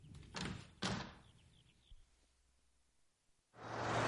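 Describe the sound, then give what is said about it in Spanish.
A door at the end of a hallway is opened: two solid clunks of the latch and handle, a short high squeak of the hinge, a pause, then a loud wash of noisy background sound rushes in. “La abre.”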